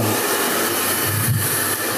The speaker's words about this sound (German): Hier, mach mal kurz ein zum Föhnen, damit man hört, dass man im Friseursalon ist.